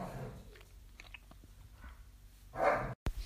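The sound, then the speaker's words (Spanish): A dog makes scattered playful sounds while playing, with soft gnawing and chewing noises and one louder yelping bark near the end. There is no talking. “Eh, perdón por los ladrillos. Eh, mi perro está jugando.”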